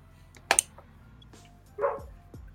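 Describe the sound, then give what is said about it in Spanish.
A dog in the background gives two quick, sharp barks, then a longer yelp that slides down in pitch, all fairly faint against a low steady hum, with no one talking. “si se escucha el perro Ramses, por si acaso es porque también está dando su opinión en el fondo”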